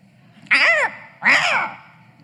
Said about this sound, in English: Don't you always feel like crows are talking about you?